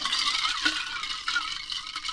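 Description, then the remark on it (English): A cocktail shaker holding lemon juice, Cointreau and cognac with ice is shaken hard, the ice rattling in a dense, bright, continuous clatter with quick rhythmic surges for about two seconds, with no talking over it. “So, so listeners know it's lemon juice, Cointreau, cognac, shaken up, which I'm about to shake, yeah.”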